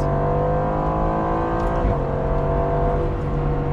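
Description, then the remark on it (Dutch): An Aston Martin sports car's new 4-litre hot-V V8 engine, a Mercedes-AMG unit from Affalterbach, Germany, runs loud and steady, its deep harmonic rumble briefly shifting pitch partway through as it revs, with no voices over it. “Vooronder ja, een V8, maar niet de oude V8 zoals ze die zelf eh, hadden.”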